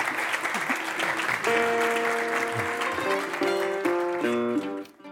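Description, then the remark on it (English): An audience applauds panel guests of a discussion on the fossil fuel economy with steady, dense, continuous clapping, and a few seconds in a stepping melodic music phrase rises over the applause before both cut off at the end. “All right, let's, let's give them a round of applause for the gauntlet of.”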